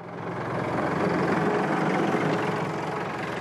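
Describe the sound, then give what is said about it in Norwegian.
A tractor engine runs steadily on Utøya, Norway, doing the last preparation work for guests, a loud continuous low rumble with a broad mechanical drone and no talking. “Traktoren gjør det siste for gjestene.”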